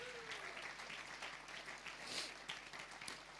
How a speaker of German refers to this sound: Hey, und lass uns Gott nochmal einen riesen Applaus geben.